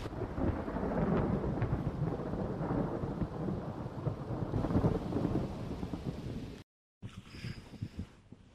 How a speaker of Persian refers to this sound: خدای من عجب طوفانی به صدای رد گوش کن